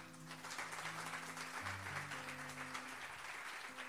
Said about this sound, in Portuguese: Aplauda ele.